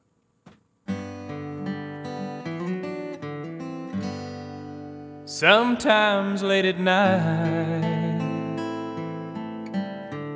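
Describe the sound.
A recorded love song plays at a moderate, steady level: soft sustained instrumental chords open it, and a sung vocal line comes in partway through over the accompaniment.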